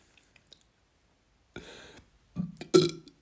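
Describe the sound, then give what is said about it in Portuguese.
A few faint clicks, then a breathy, rasping belch, followed shortly by a louder, deeper burp with a guttural, voiced rumble. Fairly loud, with no talking. “Aí o arroto na caveira.”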